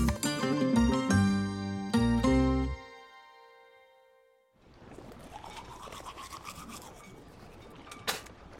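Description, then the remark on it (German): A few sustained musical chords fade out, then teeth are brushed with a toothbrush and toothpaste at a ship's railing over the water: a steady, wet, raspy scrubbing that runs for several seconds with a brief sharper scrape near the end. “Neville spuckt die Zahnpasta über die Reling ins Wasser.”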